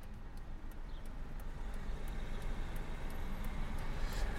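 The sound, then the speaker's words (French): Steady low rumble of a car interior on the move, driving to the Institute of Vine and Wine Science in Villeneuve-d'Ornon, about 30 minutes from Bordeaux, France; a continuous engine and road drone fills the background with faint ticking clicks on top, no one speaking. “Donc on est de retour dans la voiture, cette fois-ci pour aller où ça va On va à l'Institut des sciences de la vigne et du vin à Villeneuve-d'Ornon, donc euh, environ 30 minutes euh, de Bordeaux.”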